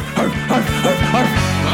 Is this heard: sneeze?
no